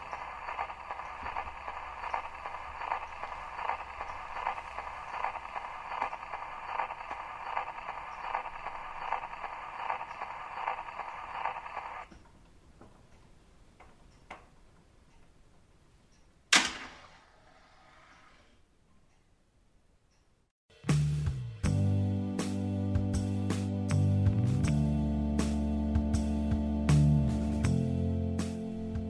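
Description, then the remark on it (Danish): A steady band of hiss gives way to faint ticks and a sharp click, then Schubert's Winterreise begins playing on Karen Blixen's own portable travel gramophone, its piano chords striking in a regular, moderately loud rhythm. “Musikken gennem hele udsendelsen var Schuberts vinterrejse afspillet på Karen Bliksens egen rejsegrammerform”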